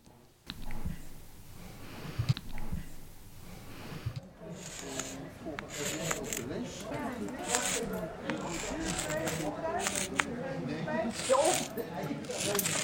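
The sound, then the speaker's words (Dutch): Chalk scrapes and scratches across a hard surface in quick, uneven strokes as someone writes with chalk, fairly loud, with muffled voices murmuring in the background. “Er komt heel veel krijt ook af hoor.”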